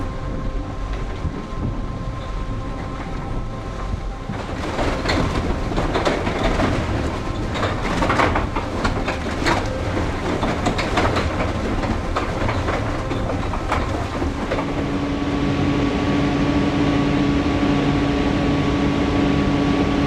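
Machines and equipment operating in Slovenian coal mines (the closing mines at Hrastnik and Trbovlje and the working lignite mine at Velenje): a dense rumble, metallic clattering and rhythmic clanks, like rail cars rolling, then a steady mechanical hum and whine settles in near the end.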